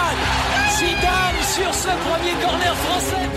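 A huge crowd at the Stade de France roars with joy after Zidane's headed goal puts France 1-0 up against Brazil in the World Cup final, a dense, loud wall of cheering and shouting voices that stays steady without a break throughout.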